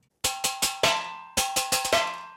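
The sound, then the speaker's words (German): Cowbells from a grandmother's farm, rung by hand by musician Andreas Begert for his music, clang in two quick bursts of four bright metallic strikes, each ringing briefly with a shimmering tone before the next, separated by a short pause. No voices. “Das Kompositionsprogramm am Computer kann zwar Noten in Geigen und Pauken übersetzen, aber die Kuhglocken läuten muss Andreas Begert gerade selbst.”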